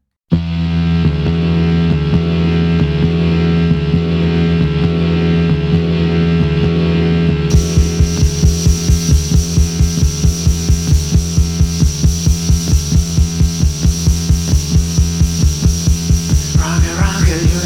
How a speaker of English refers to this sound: Their unusual lineup set them quite apart from the rock music of the time, featuring minimal rhythm boxes, spooky organ